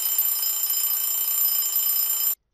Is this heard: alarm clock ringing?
yes